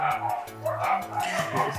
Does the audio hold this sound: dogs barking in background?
yes